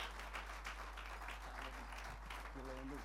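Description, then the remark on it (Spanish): A church audience applauds steadily as praise to the Lord, a dense, continuous patter of many hands clapping at fairly even loudness, with a few voices calling out over the clapping near the end. “ese aplauso, alabanza al Señor.”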